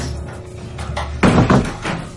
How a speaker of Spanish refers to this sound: Cierra las puertas del salón.